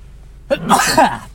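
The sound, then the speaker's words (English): One person sneezes inside a car, a short breathy build-up followed by a loud, explosive burst that trails off quickly. “And now I feel the urge to sneeze, which is not a good way to start a podcast.”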